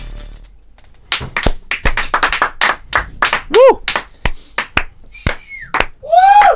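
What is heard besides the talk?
audience applause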